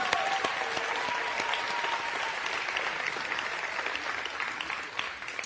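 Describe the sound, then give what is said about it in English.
An audience at Bay Hills breaks into sustained applause for the fathers standing on Father's Day, a dense, steady wash of many hands clapping that holds at an even level for about five seconds, with no talking over it. “We're just going to give you a round of applause.”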